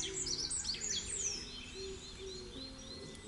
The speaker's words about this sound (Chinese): 小鸟吱吱叫，小鸟自在飞。